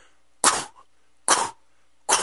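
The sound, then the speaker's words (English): A woman on a stage, face to face with people seated in chairs, imitates a sneeze three times, each a short, loud, breathy burst, spaced evenly with brief silences between. No words are spoken. “like in these people's faces, like a fake sneeze almost.”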